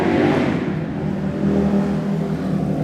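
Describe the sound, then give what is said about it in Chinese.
A car engine revs loudly and steadily for a few seconds, a sustained low growl with a slight rise and fall in pitch as the vehicle speeds past, with no voices; a street racer's car in London. “伦敦一景，这个经常容易听到这个声音， 飙飙车的人”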